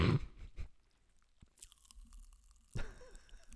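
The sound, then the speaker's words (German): Crunching and biting sounds, a few sharp crackly bursts with a brief fizzing, rustly stretch in between, like candy being dipped and chewed, no talking. “Gut, also dann zum Abschied noch einmal dippen”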